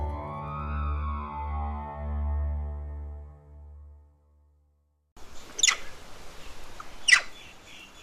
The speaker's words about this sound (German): Dreißig Grad im Schatten, die Sonne brennt. Das Quieken der Affen ist zu hören, aus der Entfernung erinnert es ein wenig an Vogelgeschnatter.